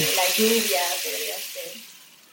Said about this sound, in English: turned a large rain stick. What's beautiful about Andean music is that it takes its cue from nature, and this is like the river, the rain.